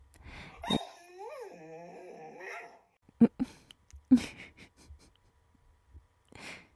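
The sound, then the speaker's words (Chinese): A hungry pet dog whines in a long, wavering high-pitched tone that rises and falls, then gives several short, sharp barks and huffs in quick bursts before a last faint whimper. “你看，我的狗儿子在生气了，它肚子饿了，也叫你赶快起床。”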